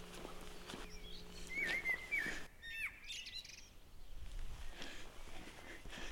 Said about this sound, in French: Et le merle noir s'en donne à plein bec.